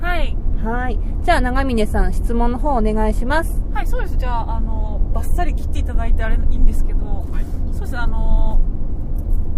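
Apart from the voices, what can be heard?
car driving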